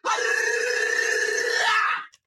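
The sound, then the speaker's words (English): A person lets out one long, loud, sustained howl lasting about two seconds, voice steady and strained, cutting off abruptly with a brief catch at the end. “Say that shit like you mean it. Howl it.”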